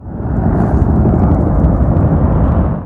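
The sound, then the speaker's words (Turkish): Two military helicopters dispatched to the area of a security operation fly overhead, a loud, steady roar of rotor and engine noise filling the whole clip with deep rumbling and no voices. “Görüntülerde bölgeye sevk edilen iki askeri helikopter ve yüksek noktada konuşlanmış güvenlik güçlerinin gözetleme yaptığı anlar yer alıyor.”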